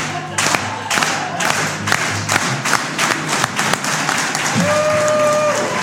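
A crowd claps together in a slow, steady rhythm, about two claps per second, loud and close, with murmuring voices and shouts underneath.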